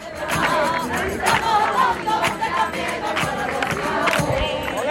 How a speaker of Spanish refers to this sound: Es uno de los momentos especiales que deseaba sentir. Dejarme llevar por esta masa humana que va cantando tras el sin pecado hasta la misma puerta del santuario.